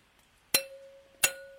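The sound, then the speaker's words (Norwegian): Two sharp clinks of handmade plastic drinking glasses tapped together, about two-thirds of a second apart, each leaving a short ringing tone that fades quickly. Fairly loud, with no talking. “Det er ikke sånn ordentlig klinkelyd i de her glassene, for det her er sånn håndlagd eh, sånn der Sånn der eksklusiv plastglass, sånn skuddsikkert jævel sånn ja, Men det er jo glass.”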